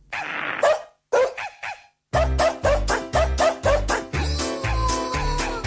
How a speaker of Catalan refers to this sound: Veig que hem instaurat ja els nostres amics, els gossos i els... No, els gossos, no, els gossos i els gats, no, aquí només hi ha gossos, em sembla.